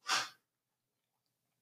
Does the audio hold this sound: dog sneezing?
yes